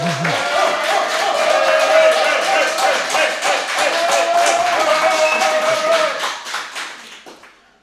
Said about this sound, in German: Ähm, ähm, wir begrüßen erstmal das Publikum hier vor Ort. Das Publikum hier vor Ort rastet aus, einfach damit ihr hört, dass wir nicht lügen.